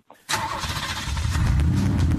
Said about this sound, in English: Let's go ahead and fire up the car, and uh, I'm going to take you on a little road trip